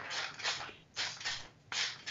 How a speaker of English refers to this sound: You can probably hear mm-hmm. that rocking noise. That is this ancient ass chair that I'm sitting in. It's not my bones. Nope.